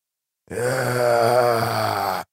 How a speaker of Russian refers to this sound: вырвался из папоротников нарастающий хриплый рев.